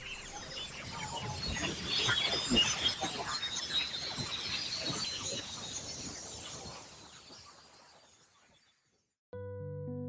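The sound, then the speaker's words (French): A mysterious sound heard during a polar aurora, its origin placed at about 70 km altitude and its source unknown to scientists: a dense crackling of sharp snaps and glassy fizzing over a bright hiss swells early, then slowly fades out. After a brief silence, a steady tonal sound begins. “Mais à ce jour, les scientifiques ignorent encore quelle est la source de ce son étonnant que je vous propose d'écouter.”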